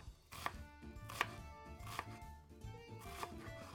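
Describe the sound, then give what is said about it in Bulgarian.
A knife chops onion very finely on a board in quick, sharp strokes, with a few louder knocks standing out against a steady clatter, clear with a low background hum; the onion is for frying in a pan. “След като мазнината се загрее достатъчно, в тигана запържвам лук, който нарязвам много, много наситно.”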